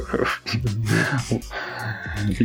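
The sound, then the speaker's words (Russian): A startled seal grumbles in several throaty, low grunting bursts, moderately loud, running continuously for a couple of seconds. “Тюлени? Да, да причем, знаешь, их можно напугать, они типа так э, поворчат, такие, о”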